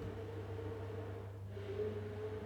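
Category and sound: household object, kitchen blender running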